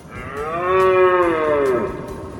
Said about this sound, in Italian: Babbo Natale aveva con sé uno speciale corno, in grado di emettere un richiamo per le renne, un suono singolare che ricordava il bramito di un cervo e che si dimostrò straordinariamente utile per localizzare Rudolf e le altre renne.